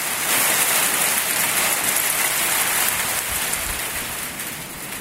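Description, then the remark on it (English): A heavy hail shower just outside Tuam drums down in a dense, steady hiss of countless tiny impacts, loud, on a wild day with wind blowing from four directions, the brief shower lasting less than 10 seconds, holding at an even intensity with no voices. “The wind was blowing from four directions simultaneously, and every two minutes there was an almighty hail shower that lasted less than 10 seconds.”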